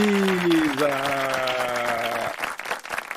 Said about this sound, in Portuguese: Oh, agora tem ah. efeito de palmas. Não tinha antes,